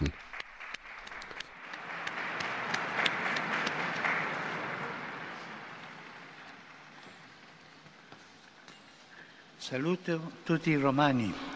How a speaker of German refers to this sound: Ein Applaus für Benedikt XVI.